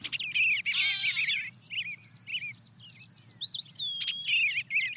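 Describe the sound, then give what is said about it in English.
A gray catbird gives a nasal, cat-like mew amid a run of varied, jumbled chirping phrases, clear over a faint low background hum. “A cat, there's a catbird sounding like a cat mewing.”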